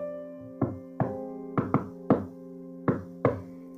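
Seven sharp, resonant knocks on a wall in an uneven, patterned rhythm, a code knocked through the wall to signal being okay for the day, including a quick double knock in the middle, with no talking.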